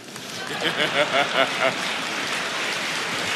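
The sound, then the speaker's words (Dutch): Audience applause at a debate fills the room with a dense, steady wash of clapping throughout, while a voice speaks briefly over it near the start before the clapping continues on its own. “niet, niet klappen, dat gaat van mijn tijd af.”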